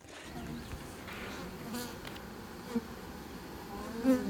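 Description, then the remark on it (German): Honey bees buzz steadily, a dense droning hum with individual bees passing now and then, no voices present; the bees are kept on a university's agricultural grounds in the east of Halle, Germany, during a beekeeping course. “Milena aus unserer Redaktion hat ihn zu den summenden Mitwes Mitlebewesen begleitet”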